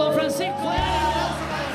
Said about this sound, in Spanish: ¡Le damos un aplauso!